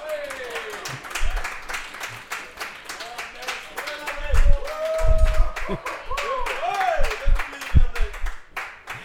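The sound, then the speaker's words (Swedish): Audience applause welcoming guest Anders Wikström on the show Carricks Corner: steady, dense clapping lasting the whole stretch, with voices and cheering rising over it and a few heavier thumps toward the middle. “En varm applåd för Anders!”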